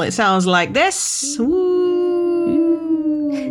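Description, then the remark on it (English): A person speaks briefly, then a single long, steady wolf-like howl follows, held loud for about two seconds with a slight falling pitch, apparently a human voice imitating the howl. “So, guys, you want to be listening out for the wolf howl.”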